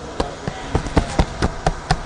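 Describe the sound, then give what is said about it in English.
About eight quick knocks on a dried, salted giant squid, almost three meters long, air dried and held in the hands in a test kitchen, evenly spaced and sharp, with a hard, woody tap to each hit and no talking. “I knock on it and it's like a piece of wood.”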